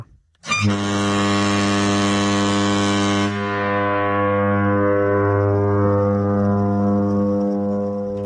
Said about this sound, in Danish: Der er ikke noget som et færgehorn, når det runger ud.